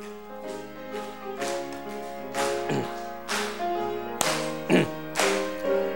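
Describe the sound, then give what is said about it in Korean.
An audience claps along to Hymn 91, "슬픈 마음 있는 사람", sharp rhythmic claps landing every half second or so over sustained tones from instruments or organ, with no talking. “찬송가 91장 슬픈 마음 있는 사람 우리 찬양하실 때 어깨를 쭉 펴시고 힘차게 박수하시면서 우리 함께 찬양하겠습니다.”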